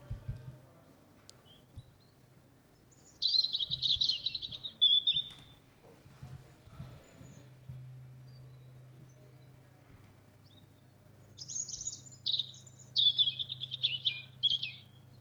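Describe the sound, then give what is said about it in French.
A European robin sings two clear bursts of high, fluty, warbling phrases separated by a pause, over a low steady hum, with no voices. “voilà ce, petit son euh, flûté et très mélodieux qu'on va entendre euh, assez souvent en fait euh, en ce moment même, puisque c'est un oiseau qui va chanter presque toute l'année.”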